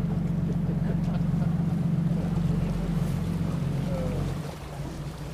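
A boat's engine drones steadily with a deep, constant rumble, mixed with rushing wind and water noise, as the boat crosses between two islands in a stiff breeze with foaming sea spray, dropping slightly in level near the end.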